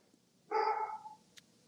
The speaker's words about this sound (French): Euh, non, c'est le mien, ça. C'est mon chien aujourd'hui.